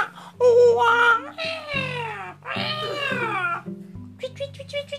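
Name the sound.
cat meowing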